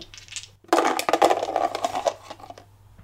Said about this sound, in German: Würfel lügen nicht.